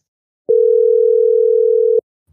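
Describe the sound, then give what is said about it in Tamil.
A single steady telephone ringing tone from an outgoing call to a contact who had not answered before, one sustained mid-pitched beep lasting about a second and a half, clear, then silence. “அதனாலதான் நம்ம காலே அட்டன் பண்ணல பிஸியா இருப்போம் போட்டிருக்கேன் ஒரு டைம் அடிச்சு பார்ப்போம்”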